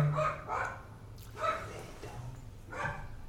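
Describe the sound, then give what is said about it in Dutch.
Another dog barks several times at a steady pace, each bark short and harmonic, with a low background hum throughout. “Inderdaad, geblaf is van, van een andere hond, dus niet van, van Sky.”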